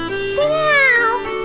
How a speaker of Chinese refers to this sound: 喵！猫咪惊叫着，迅速地跳上窗台，窜出窗外。我起初吓了一跳，可立刻又觉得一阵好笑。大概喵是被我那刚煮好的杯子里的热牛奶烫到舌头了吧。